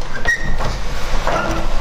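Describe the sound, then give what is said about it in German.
A sliding door rolls shut with a low rumbling scrape, a brief squeak early on and a soft thud near the end, fairly loud with no talking. “Na gut, also, hier können wir wieder zumachen.”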